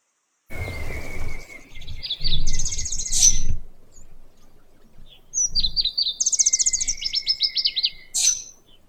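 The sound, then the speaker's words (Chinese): Light-vented bulbuls in the trees of a wood at a botanical garden, feeding their young, chirp in two bursts of bright, high trilling phrases with quick rising notes, over low rumbling background noise; no one speaks. “但是在这一路上，我还是看到了白头鹎在树上面，在树林当中嘛，去喂它的小鸟”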